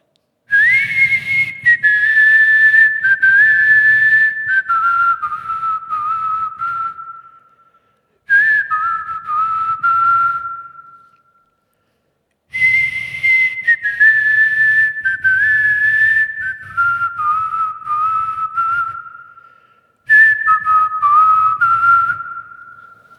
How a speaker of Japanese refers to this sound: ちょっと口笛吹くねうんんだ口笛うまいかな